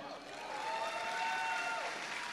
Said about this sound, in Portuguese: Aplauda ao Senhor.